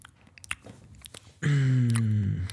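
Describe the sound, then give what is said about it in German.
A few sharp, crisp crunches of someone biting into potato chips, modest in volume, followed by a loud, sustained humming tone that slowly slides downward in pitch. “Die nächste Chipsorte.”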